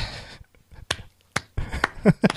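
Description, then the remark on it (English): A few sharp, isolated hand claps, about four, spaced unevenly over a couple of seconds, with a short murmur of voice near the end. “no, it's not a golf clap. I clap”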